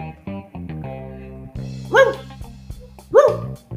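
A dog growls low and steadily, then lets out two sharp, loud, aggressive barks about a second apart, with no one talking.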